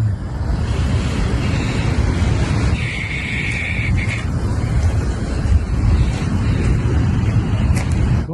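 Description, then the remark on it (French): A river, running high after recent rain, rushes past in a loud, steady roar of churning water, unbroken throughout, with a faint high whistle briefly rising above it midway. No one speaks. “Je crois que déjà à la base c'est pas mal mouvementé, mais comme il vient de pleuvoir, eh ben, l'eau est, est euh, en mouvement.”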